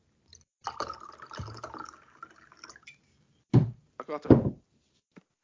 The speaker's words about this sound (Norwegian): Nå tror jeg nesten jeg må skjenke litt mer vin i glasset mitt her.